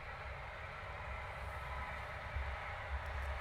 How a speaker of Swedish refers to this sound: Nu körde förbi ett tåg precis här som ni kanske hör. Eller så hör ni inte det för jag har sådana bra mikrofoner.